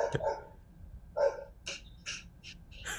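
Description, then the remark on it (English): A dog barks repeatedly, about six short, sharp barks spaced irregularly over a few seconds, moderately loud, with no voices over them. “So you can go get your dog if you want.”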